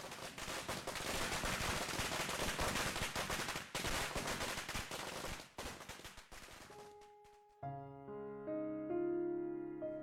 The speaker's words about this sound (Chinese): 更有顽皮的男孩子喜欢点燃鞭炮吓唬过路的小女生，这里被吓得哇哇大哭，那边便哄笑着逃之夭夭。